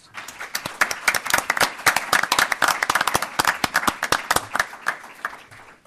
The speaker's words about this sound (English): As I say, they are the ones who, who did all the work, and uh, we certainly owe them, I think, a round of applause.